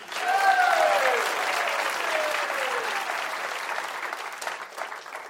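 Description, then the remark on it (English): An audience at the live show Tell Me Something I Don't Know, hosted by Stephen Dubner, applauds steadily for several seconds to welcome a contestant, a dense wash of clapping with a few cheers rising over it, tapering slightly toward the end. “Would you please welcome our next contestant”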